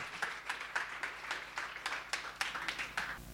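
An audience applauds, producing a steady patter of quick, crisp claps at a moderate volume for a few seconds, with no one speaking over it.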